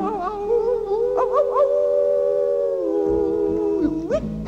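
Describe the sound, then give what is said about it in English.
A long, loud howl at the moon rises with a few wavering swoops, holds a steady drawn-out note for several seconds, then slides upward at the end, with no talking. “We're gonna hoot and holler and howl at the moon.”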